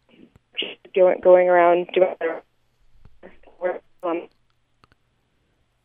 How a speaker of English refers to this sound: uh, you're you're cutting out a little bit. Um, ooh. Wonder if maybe hold the, the phone a little closer to your mouth, perhaps.